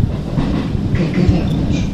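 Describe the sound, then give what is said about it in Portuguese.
Steady, heavy rumble of a moving commuter train heard from inside the carriage, with constant low-end roar and faint rattling, no voices, loud and continuous throughout. “Sentada no comboio, é uma rapariga entre tantas outras.”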